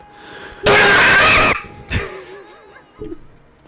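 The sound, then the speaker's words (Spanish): A voice mimics a donation alert sound effect: a loud, harsh vocal burst lasting about a second, then a shorter burst and some faint breathy, chuckle-like sounds. “Yo voy a hacer el efecto.”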